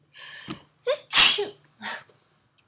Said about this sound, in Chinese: 好打喷嚏，等一下，就是。